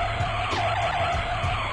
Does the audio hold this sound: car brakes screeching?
yes